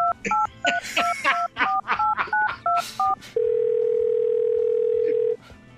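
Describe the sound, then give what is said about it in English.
A quick run of about ten clear two-tone telephone keypad beeps as a company's customer support number is dialed on a phone, followed by a steady, sustained dial tone lasting about two seconds before cutting off. “now I should dial that number.”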